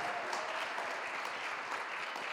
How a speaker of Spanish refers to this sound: les pedimos un fuerte aplauso.